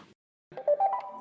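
A Segway electric scooter, the first model the company made, gives a short electronic jingle of a few rising beeping tones, moderately loud, lasting under a second with no talking.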